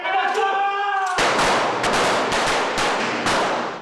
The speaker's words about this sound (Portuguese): Aqui eles dedicam 100 horas de treinamento para se aprimorar como seguranças pessoais. Só no estande de tiro são 400 repetições.